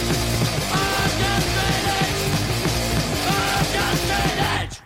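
Loud, dense hardcore punk music with fast driving drums and distorted guitars, a shouted vocal surging over the band, playing continuously before cutting off abruptly at the end.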